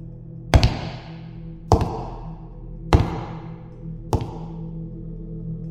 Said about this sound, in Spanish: Cerré mis ojos y todo estaba muy callado. Parecía no haber ni un sonido, hasta que a lo lejos escuché unas pisadas fuertes dentro de la casa, como si alguien estuviera caminando utilizando unas botas.